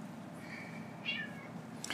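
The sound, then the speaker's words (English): A cat meows a couple of times while cats are being fed, a faint drawn-out mew followed by a slightly louder, higher one, set against a low steady hum with no talking. “We're watching cats get fed.”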